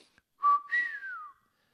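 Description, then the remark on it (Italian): A short surprised whistle from a person: one steady note that jumps higher and then glides down, heard clearly on its own, lasting about a second. “La bocca di McQueen si serrò in un fischio.”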